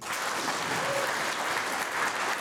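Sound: audience applauding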